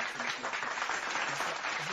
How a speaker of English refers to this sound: right, let's applaud for that.